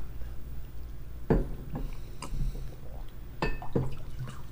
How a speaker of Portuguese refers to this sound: Deixa eu tomar um pouco de água.